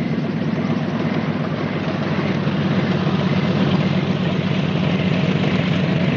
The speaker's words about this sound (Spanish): Por la noche, una avioneta recorre la pista de aterrizaje de un aeropuerto.